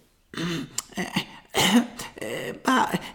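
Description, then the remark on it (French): A man clears his throat in a few rough, gravelly bursts, fairly loud, with short pauses between them and no talking. “se racle la gorge d'un air un peu gêné.”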